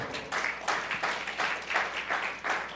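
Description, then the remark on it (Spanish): A crowd applauds for the King, the dense clapping swelling in a regular pulse roughly every third of a second, as if many hands fall into a shared rhythm. No one speaks. “Démosle un aplauso al Rey, por favor.”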